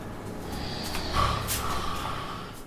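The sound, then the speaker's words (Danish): A man lying in the living room of a rented apartment snores, with rough, snorting breaths rumbling through the nose in a steady, heavy rhythm and no one talking. “Men nu ligger han i stuen i den lejlighed, vi har lejet og snorker som en bjørn.”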